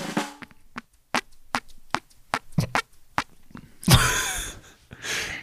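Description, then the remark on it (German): A rapid run of about ten sharp, slapping pops from skin pressed against the collarbone, like a fart imitation, followed by two longer, breathy, sputtering bursts. No one speaks. “Und jetzt furze ich mit meinem Schlüsselbein.”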